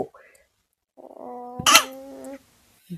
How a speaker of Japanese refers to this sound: すいません、くしゃみ